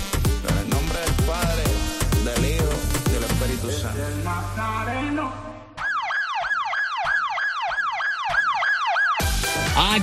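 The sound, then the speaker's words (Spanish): Loud music plays first, then cuts to a rapid, warbling siren-like alarm, a phone app's notification alarm, that repeats its rising-and-falling wail several times in quick succession before the music returns. “escuchar la alarma de la pillada real.”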